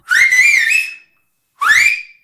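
A person whistles two loud signal calls to give commands: a longer wavering whistle, a brief pause, then a shorter one that rises and falls. No one speaks.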